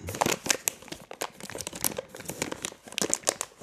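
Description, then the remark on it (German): A bag of snack mix crinkles continuously, with dense, sharp bursts of rustling and crackling at an irregular rhythm, fairly loud throughout and no talking. “Hier nochmal so ein Snack-Mix.”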